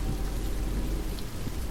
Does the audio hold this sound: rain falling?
yes